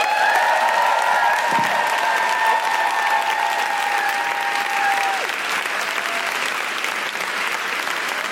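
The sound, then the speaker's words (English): A sustained burst of audience applause welcoming two guests from Abortion Rights UK, dense and steady for several seconds, with a faint whistle-like tone running through it. “Please clap your hands and welcome”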